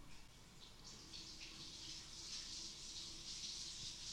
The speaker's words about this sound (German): Ich höre da gerade irgendwie Plätschern im Hintergrund. Ähm. ja, äh, ist vorbei.